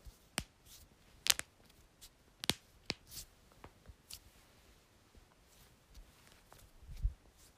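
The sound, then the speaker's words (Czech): A series of sharp pops as finger knuckles and one side of the neck are cracked, coming in irregular bursts with a couple of louder snaps amid quiet rustling. “No, teď už to nejde, ale křupla jsem se jednou, jednu stranu krku a prsty, takže se moc omlouvám všem, kteří to nemáte rádi”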